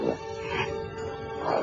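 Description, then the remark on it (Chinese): A large adult male wild boar with huge tusks roars in one continuous, harsh, throaty growl with a tonal edge, swelling at the start and again at the end, with no voices present. “迈着蛮横的步子朝老虎走过来，还不时的向老虎发出一阵嚎叫。”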